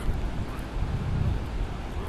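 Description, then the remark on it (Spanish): Sea surf washing against the shore at Gijón on a rainy day, a steady, low roaring wash, mixed with gusty wind buffeting the microphone, with no distinct breaks between waves. “Lo que se oye es el mar.”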